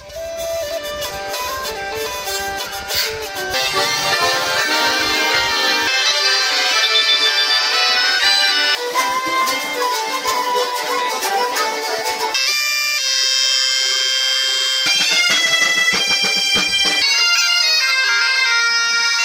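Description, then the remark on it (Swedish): Bagpipe music recorded at a festival plays loudly and continuously, with bright, reedy sustained tones and a shifting melody, briefly changing character partway through before carrying on without any talking. “Eh, men jag har spelat in eh, en liten reportage, eller man kan säga ett litet potpurri av det bästa från den här festivalen.”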